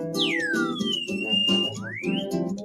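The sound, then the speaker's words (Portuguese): An indigenous whistle blown in three sliding notes: a high tone swooping down, a long steady whistle, then a quick upward glide, over a constant low murmur. “apito aqui também indígena?”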